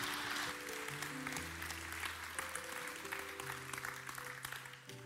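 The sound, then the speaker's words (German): Steady applause from a church audience, celebrating someone's decision to accept Jesus Christ, fills the whole stretch, a dense wash of clapping with a sustained low musical tone underneath. “Gib dir mal fetten Applaus, weil das ist richtig krass, diese Entscheidung.”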